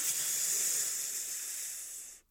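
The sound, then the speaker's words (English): A person demonstrates a deep breath in for a breathing exercise: a steady, airy, hissing inhale filling the lungs, lasting about two seconds at an even loudness, then cutting off abruptly. No one speaks. “Uh, 30 or 20, 20 to 30 breaths depending on when you feel it uh, but if you go ahead and you breathe in so you go”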